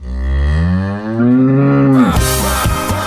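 A single long, loud cow moo, drawn out, with its pitch slowly rising before it breaks off into a brief burst of harsh, noisy sound.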